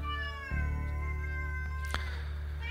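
A cat lets out a long, drawn-out, mournful meow, its wavering tone held steadily for a few seconds over a low constant hum, with a couple of faint clicks.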